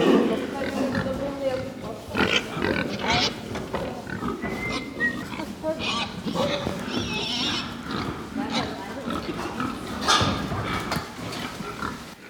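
Pigs grunt and squeal together inside a barn on a pig farm, a dense, steady chorus of snorts with occasional sharper high-pitched squeals rising above it, loud throughout.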